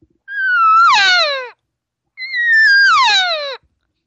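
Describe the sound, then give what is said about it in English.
A person imitates a cow calling a bull over to breed her: two loud, drawn-out vocal calls, each sliding downward in pitch, separated by a short pause, with nothing else audible. “But once she goes yeah, and drops that note four or five times, she's asking him to come over.”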